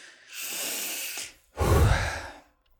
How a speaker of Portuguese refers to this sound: Você já reparou quanto a gente fica sem respirar fundo ao longo do dia? Entra no corre-corre, passa o dia respirando superficialmente, viu? Respiração curta assim é só você dar uma boa respirada funda que já recarrega a energia, o foco, todo o resto.